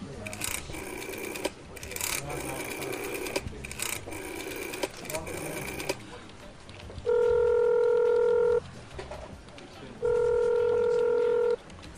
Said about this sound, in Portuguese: telefone toca um pouquinho, uma, uma pessoa atende do outro lado.